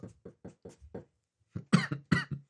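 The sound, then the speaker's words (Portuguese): A quick run of five soft, short coughs, then a brief pause and a few louder, harsher coughs, with no talking. “Olha a tosse, ó.”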